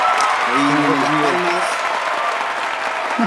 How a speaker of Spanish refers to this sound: Ahí Hay palmas, ¿qué pasa?